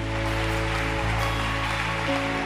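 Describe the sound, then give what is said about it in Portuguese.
An audience applauds God in a dense, steady wash of clapping that holds at an even loudness for a couple of seconds, with sustained low keyboard-like tones humming underneath. “Aplauda aquele que é santo”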